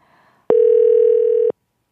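A single steady telephone ringback tone sounds for about a second, loud, starting and stopping abruptly after a faint murmur at the start, as a call is placed to a listener on the radio show 이은지의 가요광장.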